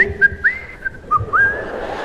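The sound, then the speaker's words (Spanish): Someone whistles a short, wavering tune, the notes sliding and stepping between pitches over a low background rumble, with no talking. “Estaba silbando, mis hermanos, estaba bien contento.”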